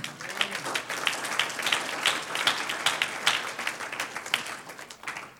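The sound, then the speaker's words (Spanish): An audience applauds the Lord steadily, many hands clapping in a dense, crackling wash with sharp individual claps popping out, holding a fairly even loudness throughout without any talking. “Dije, yo quiero, debemos querer hacer un aplauso al Señor.”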